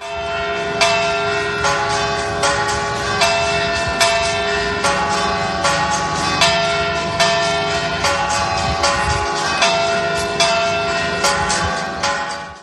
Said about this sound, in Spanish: Pero antes, el 30 de julio, las campanas de la catedral volverán a repicar para dar la bienvenida al nuevo arzobispo de Valladolid, Luis Argüello.